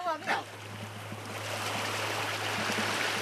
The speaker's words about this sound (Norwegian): Solen har akkurat brutt gjennom skydekket, og bølgene skyller mot stranden på Ramton camping ved Oslofjorden.